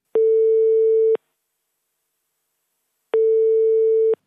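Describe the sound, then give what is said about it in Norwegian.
Two long, steady electronic ringback tones, each about a second, separated by a pause of about two seconds, the sound of a phone line ringing on an outgoing call to Germany, answered by the Deutsche Meteorologische Institut. No voices. “Derfor skal vi ringe til Tyskland og høre hvordan temperaturen i vannet er der.”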